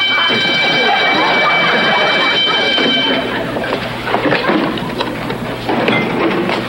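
A loud, steady electronic burglar alarm rings for about three seconds over a noisy, clattering background, then cuts off abruptly, leaving bustling ambient noise behind.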